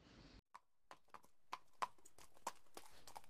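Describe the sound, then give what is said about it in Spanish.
Hooves of a farmer's donkey clip-clop on a hard surface as it approaches, in a steady, unhurried series of sharp knocks, with no voices, after a brief burst of noise at the start. “Anda, ahí viene el granjero con su burro”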